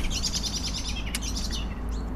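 common blackbird calling

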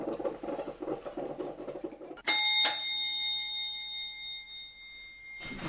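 doorbell ringing

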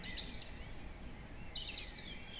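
european robin singing

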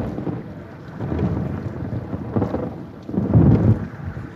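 thunder crash

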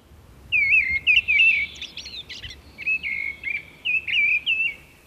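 mistle thrush song

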